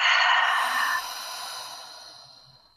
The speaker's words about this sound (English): if you want to just close your eyes and take a nice deep inhale, and a nice full exhale.